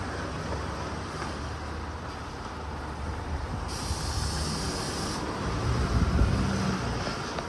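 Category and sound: vehicle, bus driving away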